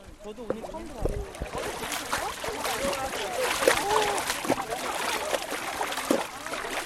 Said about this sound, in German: steigt in das eiskalte Wasser und genießt die sofort einsetzende kühlende Wirkung.